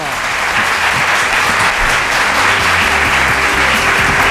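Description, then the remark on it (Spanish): A live audience breaks into spontaneous, steady, sustained applause, a dense wash of many hands clapping at once that stays loud and even throughout, with faint crowd murmur underneath. “Qué bien, cómo me gustan los aplausos espontáneos.”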